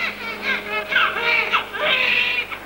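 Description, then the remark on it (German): A newborn test-tube baby cries just after its filmed birth, in high-pitched wails, several strained bursts running almost continuously with brief catches of breath between them, loud and alone. “der Arzt Patrick Steptoe freut sich über den guten, gesunden Schrei des neuen Babys”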